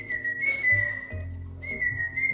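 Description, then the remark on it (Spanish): A person whistles to imitate the call of an owl heard from a tall avocado tree in a large patio: two sustained, high, slightly wavering tones separated by a brief pause, fairly loud, with no talking. “Y me acuerdo que en ese aguacate, estaba muy alto el aguacate, de repente se oyó un pájaro, ¿no? Que, se oía así.”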